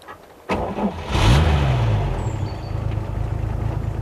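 A car engine cranks briefly, catches with a rising rev, then settles into a steady, rumbling idle. No one speaks.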